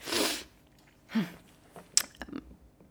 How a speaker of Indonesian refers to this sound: aduh mau bersin lagi Sorry.